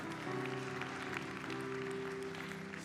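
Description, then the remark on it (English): An audience claps to God steadily and continuously, a dense patter of many hands at an even loudness, with a sustained low musical tone holding underneath throughout. “Come on, I know some of you might be a little groggy, but wake up and clap to God and say, Yes, Lord.”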